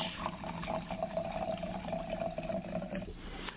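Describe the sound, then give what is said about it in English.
Red Cabernet wine pours steadily into a glass for about three seconds, a continuous liquid stream with a faint ringing tone, heard alone without any talking. “going to give our first pour here.”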